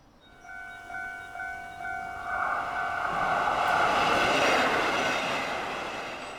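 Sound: train passing with horn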